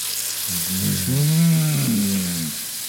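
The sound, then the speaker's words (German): A steady hiss of food sizzling in a hot pan runs throughout, joined midway by a low, wavering moan-like tone that swells and fades over about two seconds. “So, wir brauchen jetzt auch ganz viel heiß, dann gibt es jetzt direkt guten, ja. einen guten Soundeffekt hoffentlich.”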